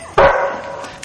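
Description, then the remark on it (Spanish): A German shepherd tied on a chain in a backyard lets out a single loud bark that stretches into a drawn-out, tonal yelp and slowly fades, with no one speaking. “su padre se despide del pastor alemán que está atado a una cadena.”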